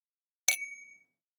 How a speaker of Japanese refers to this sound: もう一回乾杯しとくか、最後に。ね。沖縄の飲み会は何回も乾杯するっていうので有名です多分多分ね乾杯